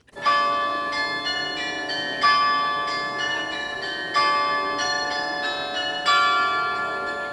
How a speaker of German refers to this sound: Und so erfreut das Glockenspiel auch die Menschen, die gerade den Frankfurter Weihnachtsmarkt besuchen. Sehr schön. Wunderbar. Also sehr beruhigend, finde ich.